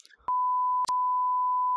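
censor bleep tone

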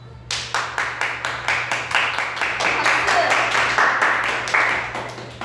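clapping

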